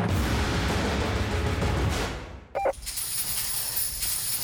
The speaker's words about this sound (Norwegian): Hei, hei, hei, vær så snill å stoppe. Vet du, Den lyden der, den bare takler jeg ikke. Nøkler innlåsning. Det vil vi ikke ha nå.